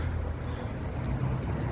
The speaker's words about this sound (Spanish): Hay coches, hay todo este tema. Bueno, se ve un audio por la calle bastante ruidoso.